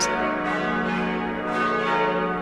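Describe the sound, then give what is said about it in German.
Church bells of a monastery in Styria, the oldest there, founded in 1074, ring in a dense, overlapping peal, several bells sounding together with a sustained metallic shimmer and periodic swells. No talking is heard. “Wir hören die Glocken läuten und man merkt es sofort.”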